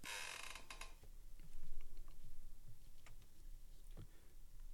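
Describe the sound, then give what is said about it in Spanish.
A door creaks slowly shut, opening with a brief rush of noise followed by a series of low, irregular groaning creaks and clicks, moderately loud, with no voices. “Y desapareció por el negro hueco de la puerta que se cerró tras ella.”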